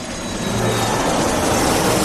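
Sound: airplane taking off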